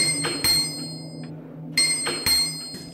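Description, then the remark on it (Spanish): A stone in Toluca, known as the stone that sounds like a bell, is struck three times and rings out with a clear, metallic bell-like tone. Each sharp hit leaves a sustained shimmering ring that lingers between strikes, fairly loud. “Ah, según las señas que me dio mi abuelo, esta es la piedra, la que suena como campana.”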